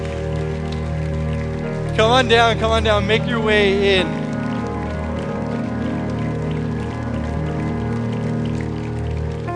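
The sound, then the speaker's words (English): A church audience, standing, claps steadily in a dense, continuous patter that lasts the whole clip, with sustained musical tones underneath and a man's voice calling out briefly over it. “For the people that are standing and clapping, they, they are doing that because they've walked this road.”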